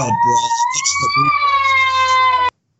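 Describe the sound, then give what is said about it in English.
A child screams in one long, shrill, steady wail that rises slightly in pitch and holds for about two and a half seconds. Brief low muffled sounds come in at the start. “Apparently, you have a child screaming to, to watch the movie too.”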